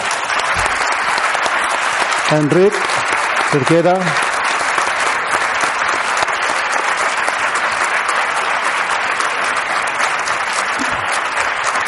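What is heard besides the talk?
audience applause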